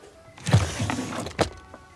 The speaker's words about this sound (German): Ich stoße auf ein Bücherregal in seinem Wohnzimmer. Voller Schnickschnack, gerahmte Fotos und ein paar Figuren. Ich denke nicht wirklich nach, als ich eine der Schubladen aufziehe, um einen Blick hineinzuwerfen.